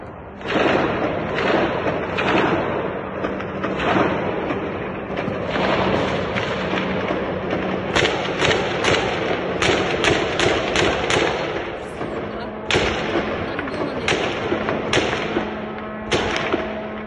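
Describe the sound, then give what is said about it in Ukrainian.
Loud, continuous barrage of explosions and gunfire in Kyiv, Ukraine, in the early morning during a Russian attack with Iranian drones, with sharp bangs and heavy thuds following one another rapidly and irregularly over a steady background hum, with no voices. “Сьогодні зранку жителі Києва прокинулись під звуки канонади.”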